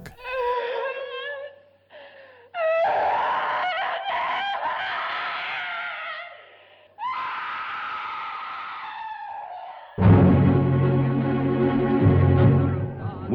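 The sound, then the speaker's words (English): In a film's violent climax, a woman, a fiancée, screams and wails into the dark in several long, loud, shrill bursts with wavering pitch, separated by brief pauses, then a final sustained anguished cry over a dense, rumbling background. “His once beloved fiancee, screaming into the dark.”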